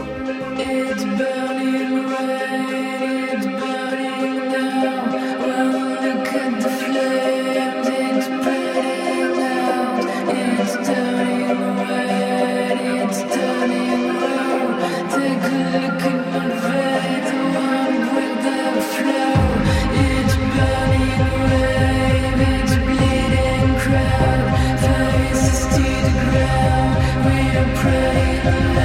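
A music track plays continuously, with dense layered instruments and sustained tones; about two-thirds of the way in, a heavy bass line enters and the music grows fuller and louder.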